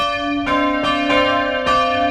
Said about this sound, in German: Wenn sie die Kirchenglocken läuten lassen will, dann drückt Gemeindepastorin Bettina Sender auf einen kleinen Knopf in der Kirche.